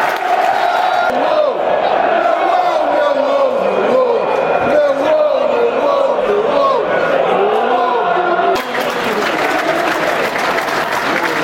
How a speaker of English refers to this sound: Applause. I think this is for Ted Ayres, a Millwall fan who passed away recently from, I believe it was cancer. Um, applause from the 59th minute, I think.